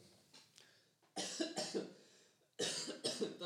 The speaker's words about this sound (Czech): Odka- odkašlej si